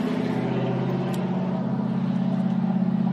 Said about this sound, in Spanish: perdóname que pasó un carro aquí con un motor muy fuerte, perdóname